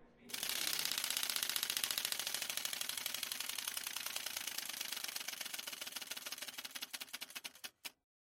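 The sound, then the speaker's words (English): A prize wheel spins with a rapid, loud stream of clicks that gradually slows, the ticks spacing out until the wheel stops near the end. “one more spin of our wheel here sarah why don't you give it a spin”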